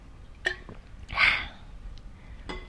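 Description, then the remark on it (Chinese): A bottle being opened for a drink: a sharp click with a faint ringing tone, then a short breathy hiss of released gas, followed by another bright clink. No one speaks. “我现在是在开瓶中，应该要喝一杯。”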